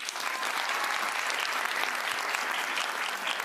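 Steady applause from a crowd, a dense wash of many hands clapping at an even level for a few seconds, with no voices standing out.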